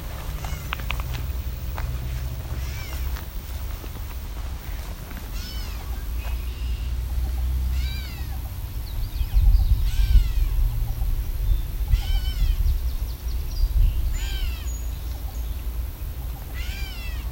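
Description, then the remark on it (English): A gray catbird gives a steady series of nasal, cat-like mewing calls, repeated every second or two, in an area with an old laneway, over a low, rumbling background of wind and handling noise. “gray catbird being very uh, talkative. It's meowing.”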